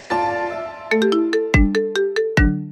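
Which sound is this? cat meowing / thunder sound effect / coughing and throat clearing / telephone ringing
telephone ringing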